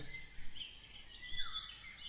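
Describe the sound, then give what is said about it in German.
Birds chirp and twitter softly in the background, a continuous high-pitched warbling that rises and falls for a couple of seconds with no voices present. “Die Vögel sind dann hoffentlich weg, wenn die Musik kommt.”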